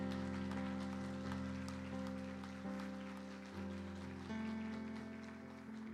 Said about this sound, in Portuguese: Você pode dar um glória a Deus por isso? Pode aplaudir Jesus por isso?